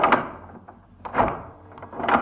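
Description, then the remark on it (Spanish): An iron key grinds and clicks in a lock, three metallic bursts spaced about a second apart with scraping between them, heard alone. “Escucha la llave de hierro girar en la cerradura.”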